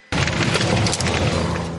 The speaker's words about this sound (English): You can actually hear the snap, crackle, and pop of these homes as they shift and move and break.